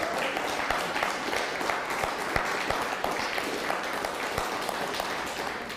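Steady applause from an audience fills the whole stretch, a dense wash of many hands clapping at an even, moderate level with a few sharper individual claps poking through.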